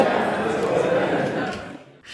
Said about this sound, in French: et on entend une élue qui fait Oh! Oh, oh! c'est ça. Je pense que ça venait du côté libéral.